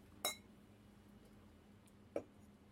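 Glasses clink together in a toast, one bright ringing clink followed about two seconds later by a shorter, duller tap, against a quiet background with no talking.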